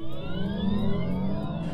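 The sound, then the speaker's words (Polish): A synthetic electric car warning sound meant to resemble a combustion-engine car of the same class: a steady, artificial engine-like hum with layered tones that slowly rise and shift in pitch, fairly loud and continuous, with no talking. “Dźwięk ostrzegawczy powinien być podobny do dźwięku wydawanego przez samochód samochód tej samej klasy, wyposażony w silnik spalania wewnętrznego.”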